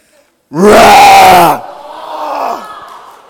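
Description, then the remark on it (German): A child's voice lets out a loud, strained roar for about a second, imitating a lion, followed by a softer, trailing vocal tail that fades out. “Kann noch jemand wie ein Löwe brüllen?”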